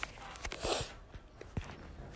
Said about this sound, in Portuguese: Esse é o barulho da minha cadeira de balanço.